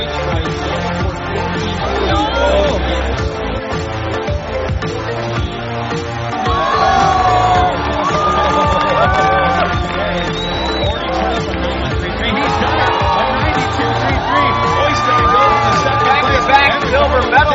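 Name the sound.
crowd cheering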